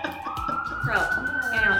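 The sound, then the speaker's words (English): A police siren wails steadily downtown, its high tone rising and holding over street noise, with faint voices murmuring underneath. “There's something because we don't There's usually have this many sirens at all.”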